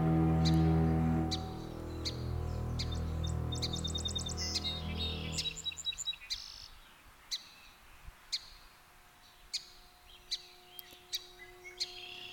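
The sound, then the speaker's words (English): A song sparrow, recently returned, sings a bright, buzzy trill over a low droning hum that fades out midway, followed by scattered short, sharp chirps outdoors, recorded in the morning at Heartbreak Meadows in northeast Oregon on May 3, 2000. “Our avian soloist uh, this morning is the song sparrow just recently returned to Heartbreak Meadow.”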